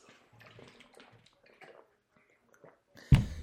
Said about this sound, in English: Uh, I think it's very important to say that I should take a swig of water before I get into this nonsense.